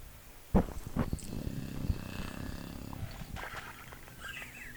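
A sudden thump, then a low, rough rumbling sputter for a couple of seconds as a car engine cranks while someone tries to start the car, before fading into a duller background noise. No one speaks.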